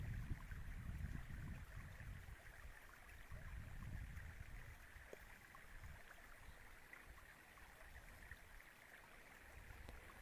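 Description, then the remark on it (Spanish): Water runs steadily in a gentle, continuous trickle while a soft breeze rises and fades in low, rumbling gusts; quiet and ambient throughout, with no voices. “Mientras tanto, despertad tu sentido auditivo, escuchando el agua correr y la brisa.”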